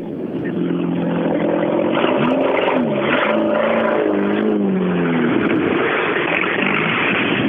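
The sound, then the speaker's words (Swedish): A rally car engine roars past, loud and continuous, its pitch climbing and dipping as it revs hard through gear changes over a gritty, rushing drone. “Eh, den låter lite extra bra nu. Ja, det är någonting med grenröret.”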